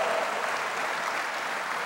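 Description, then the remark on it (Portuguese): An audience applauds God during a church sermon, many hands clapping together in a dense, even wash of sound that holds at a constant level throughout, with no voices standing out. “Quem quer a salvação completa na sua vida, aplauda Ele, diga glória a Deus, diga aleluia.”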